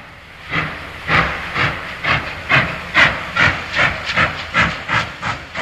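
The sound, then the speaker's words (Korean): A steam train pulls away from Cheongnyangni, bound for Gangneung, departing at 11 at night to run overnight, with a steady series of loud, hissing chuffs, about two per second, and no voices. “군입대 일주일을 남기고 우린 청량리에서 강릉으로 떠나는 기차를 탔습니다.”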